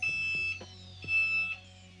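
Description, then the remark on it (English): A Dexcom G6 glucose monitor's customized high blood sugar alert, set at 120, sounds as a child's blood sugar drifts above 120: two sustained, high electronic beeps about half a second each, separated by a short gap, clear with no talking. “We have a customized alarm set at 120. It means my daughter's blood sugar has just drifted above 120.”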